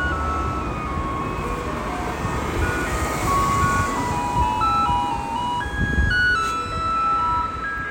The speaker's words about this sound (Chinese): 由于我现在急着要去倒垃圾，所以那个这个这个。这个地方呢，会暂停一下，我等下录一个垃圾车的声音给你们听好了。